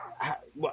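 Dogs bark in a couple of quick, sharp bursts in the background, moderately quiet, as they go crazy.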